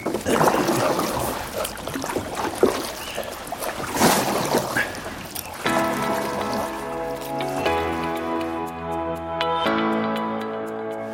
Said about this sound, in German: Und wie man hört, hört man nur das Rauschen des Schilfs tolles Naturgeräusch, oder? Ah, ich liebe das.